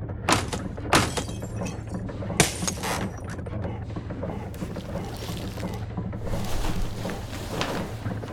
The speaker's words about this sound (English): Help me. We need to knock through to the rear deck where the coffin is.